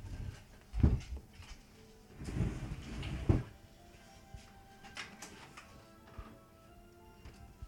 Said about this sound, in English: fuck, it's hot in here. Jesus Christ! Don't fucking hold this. Crack open the fucking door.